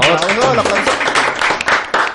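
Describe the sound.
A crowd claps in a dense, steady patter, with whoops and voices rising over it at the start, the applause staying loud throughout the couple of seconds.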